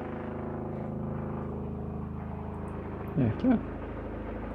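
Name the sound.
helicopter flying low overhead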